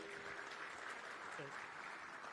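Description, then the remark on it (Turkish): An audience claps steadily, a dense, even patter of many hands that keeps the same loudness throughout, with a brief voice sounding faintly beneath it. The applause is for the Trabzon İmece Gençlik Spor Kulübü after their Black Sea folk dance performance. “evet, bir alkış da oraya isteyecektim.”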